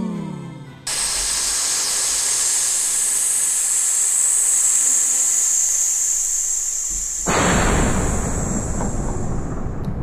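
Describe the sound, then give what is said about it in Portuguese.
A lit fuse sputters with a steady, bright hiss for several seconds, then a loud, deep whooshing roar of a fireball bursts in and keeps rumbling to the end; the fireball heads toward a tent. “bola, de, de fogo. Meu Deus, Meu Deus vai, atingir vai atingir a tenda.”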